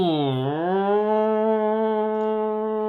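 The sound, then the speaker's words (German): A person vocally imitates the chain lift motor of the Big Loop looping roller coaster at Heide Park Soltau: a low hum dips at the start, then rises into a steady, loud, droning tone held for a few seconds, with no words spoken. “Wenn die einrastet, die Bahn damals, und dann ist sie da so reingegangen, ist die Kette oder der Zug ist in die Kette gefahren und dann hat der Motor richtig losgelegt. Den hast du überall gehört.”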